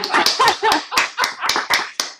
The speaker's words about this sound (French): Je vais applaudir parce qu'il n'a rien dit jusqu'à maintenant, mais il vient de sortir le truc le plus intelligent du commissaire